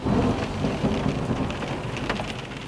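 Steady rain drums against the window glass of a Volkswagen meeting room where the company's top engine developers have gathered, a dense continuous patter with scattered sharper drops ticking through. Fairly loud, with no voices present.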